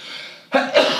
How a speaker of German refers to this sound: Oh, Gesundheit. ich glaube, das war der erste Nieser der, der, der, der Wonder Talk. Der erste Hund und der erste Nieser wahrscheinlich.